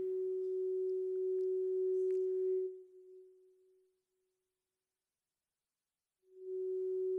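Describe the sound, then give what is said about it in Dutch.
A steady, humming ring hangs in the air like a reverberant tail, the echo in a recording of a sermon, slowly fading into silence for a few seconds before the same sustained tone swells back in. No one speaks. “Ik hoor een galm, ik weet niet of je dat thuis ook hoort, maar hoort er allemaal bij.”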